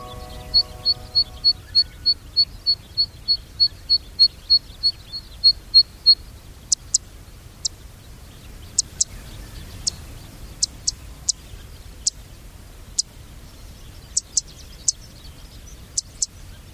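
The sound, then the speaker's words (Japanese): A single zitting cisticola, about 13 cm long, calling as it flies in bouncing arcs in Nagareyama, Chiba Prefecture, Japan: a rapid run of about twenty dry, high ticks at a steady pace, then sharper, sparser zit notes scattered irregularly over quiet background hiss. “千葉県流山のセッカをお届けします。”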